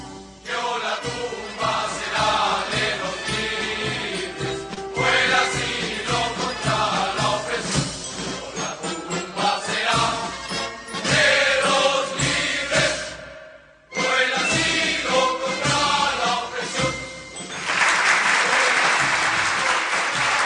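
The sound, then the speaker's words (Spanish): A recording of the Chilean national anthem plays loudly and continuously, full and dense, with a brief pause near the middle before the music resumes, ending in a bright, noisy swell. “Vamos a escuchar un poquito el himno nacional de Chile.”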